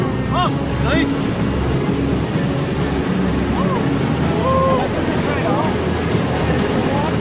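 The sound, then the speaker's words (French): A loud, steady roar of an airplane engine and rushing air fills the whole stretch without letting up, with faint muffled voices briefly rising above it, as the plane climbs to 3000 metres above the clouds before a skydive. “L'avion se met en mode stationnaire.”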